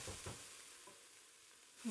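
Steady hiss of spices, including oregano, sizzling in a hot pan while being stirred constantly for about a minute until fragrant, with a few soft scraping stirs early on and a brief clunk at the end, fairly quiet with no voices.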